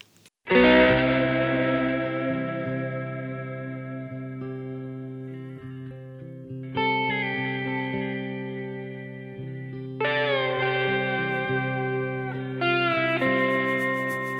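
A recorded song opens with loud, sustained chords drenched in echo and distortion, shifting to a new chord every few seconds, with no vocals yet.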